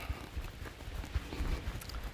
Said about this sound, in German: Gut. Und 20 normale Schritte